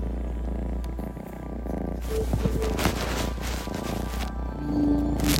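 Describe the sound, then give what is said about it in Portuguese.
A cat purrs in a steady, continuous low rumble that swells and eases with each breath, with some faint rustling noise over it and no one talking. “É o ronronado, Catinho, alegria.”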